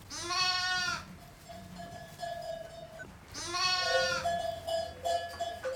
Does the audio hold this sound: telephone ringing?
no